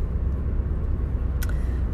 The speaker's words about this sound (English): I am in the car driving home and I literally just drove past um, a little skate park, little skate park.